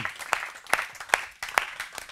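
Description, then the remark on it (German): Audience applause at ICF church for the women who lead: a steady wash of many hands clapping, with a few sharper, louder claps punching through at a regular, even beat. No voices are heard. “Lasst den Frauen, die leiten, mal einen riesen Applaus geben, wirklich.”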